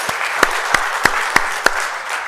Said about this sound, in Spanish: Regálale un fuerte aplauso a nuestro Dios.